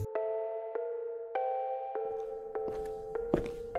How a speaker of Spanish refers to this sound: Oí las pisadas, pero yo ya estaba demasiado cansado como para que éstas me desvelaran.